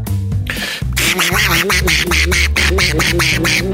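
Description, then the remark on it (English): A person does a live cartoon-duck voice impression: a loud, raspy, buzzing string of rapid quacks, sustained in a fast, jittery rhythm for a few seconds. “I can only do duck impressions.”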